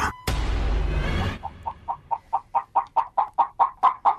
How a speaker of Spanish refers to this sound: Lo que se metió al campo de fútbol en Croacia este, y fue brutalmente pateado por un jugador eh, fue una gallina. Resulta que eh, era un juego de segunda división y estaban jugando cerca de un establo.